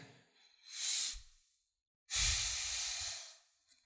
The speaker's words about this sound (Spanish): es esta, es esta respiración profunda que es contención. En vez de explotar, respiro.